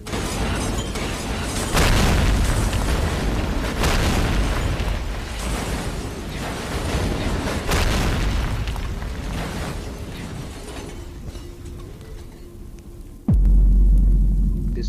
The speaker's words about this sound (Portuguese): Ah, é tanta explosão que vocês são simplesmente jogados longe, ah, numa velocidade extrema. Ah, a onda de choque foi violenta, uma sobrepondo a outra, depois de 15 ou 16 explosões gigantes ali.